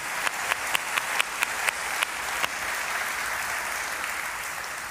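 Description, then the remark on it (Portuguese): A church audience claps together for everyone who worked during that period, starting with a few distinct, rhythmic claps that quickly swell into steady, dense applause. No one speaks over it. “E se você puder aplaudir a todo mundo que trabalhou nesse tempo.”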